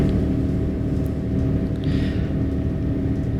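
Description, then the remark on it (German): Steady, droning low rumble of a moving train bound from Berlin to Copenhagen, heard from inside, with a constant hum and no pauses, plus a brief soft hiss midway through; no one speaks. “Aufnahme heute wieder aus einem anderen Zug, diesmal von Berlin nach.”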